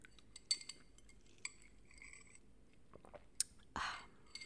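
Ice cubes clink softly against a glass a few times, followed by a short slurping sip through a straw from an iced oat milk latte, with no talking.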